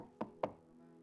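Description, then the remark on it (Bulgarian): Two quick, fairly crisp knocks on a cup, about a quarter second apart, each with a short ringing tone that fades into quiet background. “Тази чаша има звук, този часовник има звук.”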